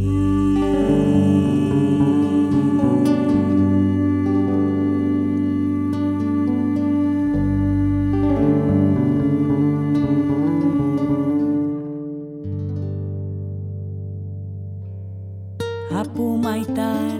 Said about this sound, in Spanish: la bondadosa toca su pututu. Apumaita la bondadosa toca su pututu. Su abuelo Amaru le dijo que tocará